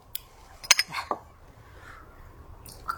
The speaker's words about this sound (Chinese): 今天我们碰杯的声音不一样，因为今天改 whisky 了， 没那么清脆， 对，然后 浓厚了很多。